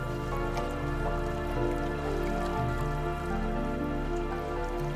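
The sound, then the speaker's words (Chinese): Steady babbling creek water flows without a break, a continuous trickling wash at an even, moderate level, with a soft sustained tonal hum underneath and no one speaking. “静静的听着小溪的流水声”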